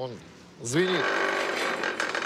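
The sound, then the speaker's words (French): An empty cement silo at a halted concrete factory in Russia, left without cement since it can no longer pass through Lithuania, resonates: a couple of bending, whooping metallic tones, then a loud, sustained grinding rumble with steady ringing overtones that hums on for over a second. “C'est vide, ça résonne.”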